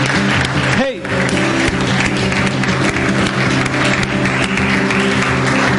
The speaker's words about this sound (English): Come on, can we give him a, some applause this morning?